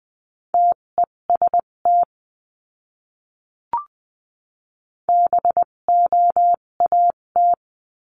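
Morse code beeps sending a practice word at 14 to 20 words per minute, on a steady mid-pitched tone, short and long pulses keyed in two quick bursts separated by a pause, with a faint click in the silent gap.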